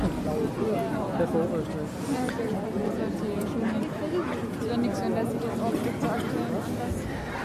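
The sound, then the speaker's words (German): Dense crowd chatter fills a busy, crowded Christmas market. Many overlapping voices blend into a steady, loud murmur with no single speaker standing out. “Aber jetzt wird es ein bisschen enger hier, wo wir sind.”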